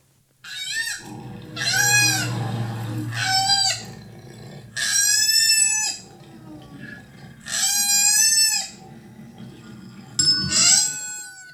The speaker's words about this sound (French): Un indice, cet animal raffole de l'eucalyptus. Euh, le koala.